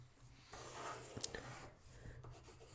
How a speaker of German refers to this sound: Und dann probiert ihr da so rumzufahren mit eurem Stift.